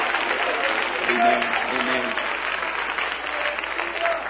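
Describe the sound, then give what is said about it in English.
An audience claps steadily and shouts hallelujah, a dense wash of applause with shouting voices mixed in, holding at an even, fairly loud level throughout. “One more time before you're seated, would you just clap your hands and shout hallelujah?”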